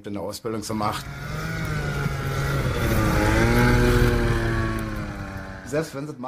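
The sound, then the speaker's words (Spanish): A microlight aircraft's buzzing engine and propeller hum swells as it draws near, peaks, then fades slightly as it passes, with brief voices at the beginning and end. “Primero compramos un micro ligero y aprendimos a volar en él nosotros solos.”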